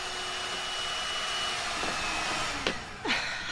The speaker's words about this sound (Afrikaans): Kan die menger nog lank loop? Amper klaar.